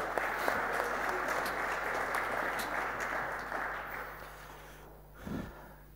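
A church audience applauds steadily, the dense clapping holding for several seconds before tapering off, followed by a brief muffled thump near the end.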